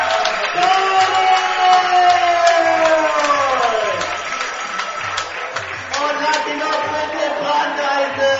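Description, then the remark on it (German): A large crowd in the Dante Stadium cheers and chants loudly after a touchdown at an American football game, the roar holding steady for several seconds with sustained, sung tones rising and falling over the dense mass of voices. “So, der Jubel im Dante-Stadion.”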